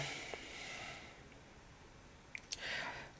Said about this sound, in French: Bref, on va passer au point. Euh, je vais relancer les dés.